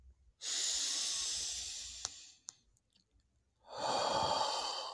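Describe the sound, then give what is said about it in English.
A slow, deep, airy inhale draws in for about two seconds, then a short pause before another breath begins. No one speaks. “And then, what I want you to do is look at those feelings in your mind as you're breathing in”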